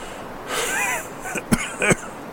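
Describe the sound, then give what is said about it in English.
A strained, raspy wheeze drawn out for about half a second, then two short, sharp coughs in quick succession, fairly quiet, with no talking, as a person tries to answer. “I tried to answer, but all that came out was a wheeze. I coughed and tried again.”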